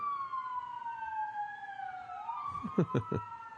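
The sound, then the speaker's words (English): Sirens wail from a moving emergency vehicle, steady tones sliding in pitch as it passes, joined near the end by a burst of short, choppy yelps. Moderately loud over faint traffic rumble. “How about some of sirens?”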